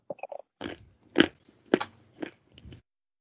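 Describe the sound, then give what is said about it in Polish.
Crisp crunching of a nut being chewed, with several loud bites spaced about half a second apart and softer munching between them, no talking. “Dobra, zjadam orzeszka i możemy nagrywać.”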